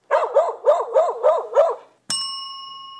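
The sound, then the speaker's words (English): A dog barks six times in quick, even succession, loud, then a single bright bell ding rings out and slowly fades. No one speaks. “Shaggy dog.”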